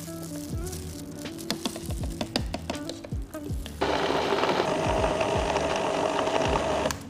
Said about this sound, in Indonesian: Ini tepungnya kita masukkan semuanya aja. Tepung tapioka. aduk dulu ya.